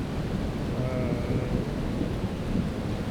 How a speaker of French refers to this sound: Et là-dedans, euh, dans ce brouhaha, il y a de temps en temps aussi, euh, mais je ne le vois pas, des, gros rochers qui, roulent au fond et qui donnent des coups de canon, qui donnent des, bruits euh, très sourds.